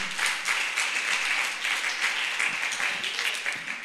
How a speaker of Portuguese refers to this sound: Aleluia! Você pode dar um glória a Deus? Você pode aplaudir a esse Deus maravilhoso?